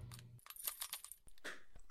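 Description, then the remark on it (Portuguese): A soldier's bunch of keys jingles in his shaky hand, a quick flurry of bright metallic clinks and rattles that come in bursts, fairly soft, with a faint low hum at the start. “O soldado, atrás deles, engoliu seco e segurou um molho de chaves um pouco trêmulo.”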